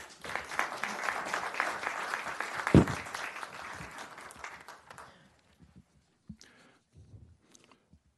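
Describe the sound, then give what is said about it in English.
A crowd applauds people who helped with a City of Lake Forest training program, clapping steadily for about five seconds, a dense patter of many hands that then thins out into a few scattered claps and quiet shuffling. “Let's hear it for these folks.”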